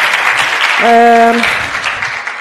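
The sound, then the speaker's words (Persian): A crowd applauds with a steady, dense patter of clapping that fades slightly toward the end, while a short sustained voice tone sounds briefly over it. “خیلی ممنون فکر کنم شایسته تشویق جانانه باشه این پاسه”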